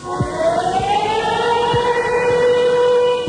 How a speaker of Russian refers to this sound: Дать сирену.